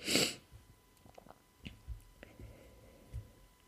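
A single sharp sneeze bursts out at the start, followed by quiet sniffs, small mouth clicks and faint rustling.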